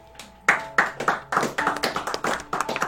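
A burst of applause: many hands clapping in a quick, uneven rhythm, with sharp repeated claps building steadily and staying loud throughout, no talking over it.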